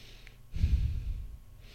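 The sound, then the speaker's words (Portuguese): A person imitates the labored, noisy breathing of someone who seems to struggle to breathe even at rest, with one heavy, rasping breath, low and rough, then tapering off. No words are spoken. “Eu costumo observar, posso estar observando errado, que algumas pessoas, em sua maioria mais obesas, elas, mesmo em repouso, parece que elas estão fazendo um esforço para respirar. E faz até um barulho na respiração, como se fosse assim, ó.”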